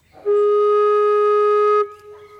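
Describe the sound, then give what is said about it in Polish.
A single low note, the lowest note on a Renaissance alto recorder, held steadily for about a second and a half with a clear, breathy, even tone, fairly loud, then stopping cleanly. “czyli tak jak mówiliśmy, najniższy dźwięk na flecie renesansowym, altowym brzmi tak.”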